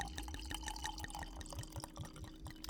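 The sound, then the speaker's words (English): Wine from a screw-top bottle is poured into a couple of glasses, a steady stream of liquid with quick repeated glugs and splashes rising in pitch as it fills. No one speaks. “This one has a screw top, um, and I'm going to pour a couple of glasses for us.”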